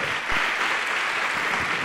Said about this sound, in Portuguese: Vamos aplaudir ao nome do Senhor Jesus por cada vida que está chegando. Se você está sentindo o chamado do Senhor, saia do teu lugar e venha aqui para frente também. E vamos aplaudir mais ao nome do Senhor.